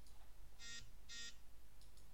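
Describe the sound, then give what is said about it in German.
A mobile phone alert sounds twice, two short, bright electronic beeps about half a second apart, followed by a couple of much fainter blips over a quiet background. “Was ist das? Das war mein Handy.”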